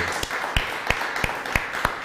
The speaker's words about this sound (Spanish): Un gusto tenerlo en casa. Nuevamente un fuerte aplauso.